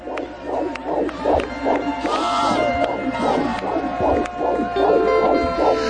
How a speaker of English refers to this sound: You hear that? You hear it, young people? That's a nine week old fetus's heartbeat.